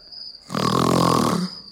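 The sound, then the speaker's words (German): A voice imitates a loud, rasping, pig-like snore of the apostle Peter asleep in the Garden of Gethsemane: one harsh, gravelly snort lasting about a second, forceful, with a faint steady high whine in the background. “Petrus schnarchelt wie eine Sau.”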